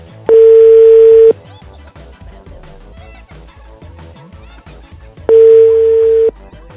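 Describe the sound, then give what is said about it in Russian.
An unanswered phone call rings out: two loud, steady ringback tones, each about a second long, spaced roughly four seconds apart, over a faint rhythmic background. “Ты просто не снимаешь трубку”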